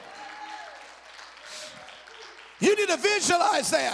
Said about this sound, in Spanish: Alguien debe aplaudir al Señor.